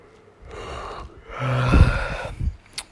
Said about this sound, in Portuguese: Pá, bocejei, desculpa. Peço perdão.